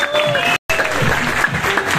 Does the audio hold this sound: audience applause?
yes